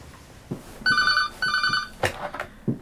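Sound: telephone ringing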